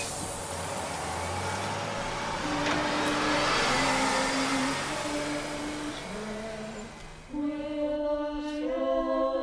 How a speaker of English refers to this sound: So join me now as we take a bus to Eastville and a chorus which has been meeting and singing for almost five decades.